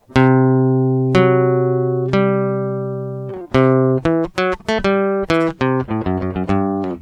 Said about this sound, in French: Ici, le triton est résolu par la quinte qui arrive juste après, et ça donne une sensation fantastique